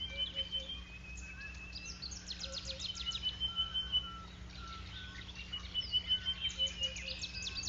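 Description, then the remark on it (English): Superb starling calls, a run of quick, bright chirps and whistles in short bursts, fairly faint, over a steady low background hum with no voices. “So are small birds, such as the superb starling.”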